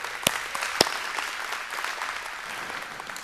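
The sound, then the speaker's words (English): A church audience applauds steadily for a few seconds for the church's Tupelo campus as it goes live. It is a dense patter of many hands clapping at moderate volume, with a couple of sharper claps standing out near the start. “Make some noise for those guys over there.”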